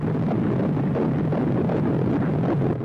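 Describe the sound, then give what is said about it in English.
A fetal heartbeat recording of an unborn baby 28 days after conception: a loud, continuous whooshing, rumbling wash of noise with a fast, muffled pulsing throb running steadily through it and no voices. “You are listening to the sound of the heartbeat of an unborn baby just 28 days after conception.”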